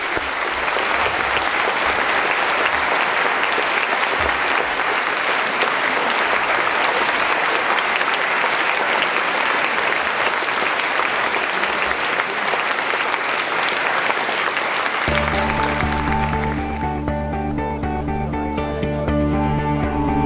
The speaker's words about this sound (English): Can you all can you join me though in giving a really warm round of applause and thanks to all our speakers this evening.